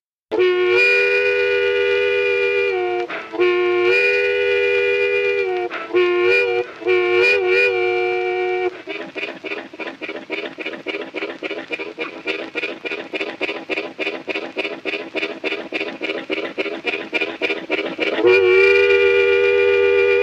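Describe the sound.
A harmonica mimics a train: sustained wailing whistle chords, then a steady rapid chugging rhythm of puffed chords that builds, ending on a loud whistle blast. Solo, no voices.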